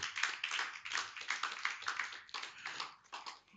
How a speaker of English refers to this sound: Can you clap your hands for it?